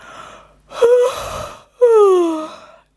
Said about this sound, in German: gähnt. Sie ist müde, sehr müde.